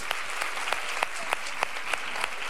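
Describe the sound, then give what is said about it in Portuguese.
An audience applauding the women disciplers of the headquarters audience: a dense, steady wash of many hands clapping, with a few sharper claps standing out at an uneven rhythm, and no voices over it. “Vamos dar uma salva de palmas para todas as nossas discipuladoras.”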